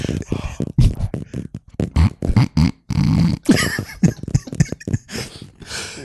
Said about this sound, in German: Handlotion.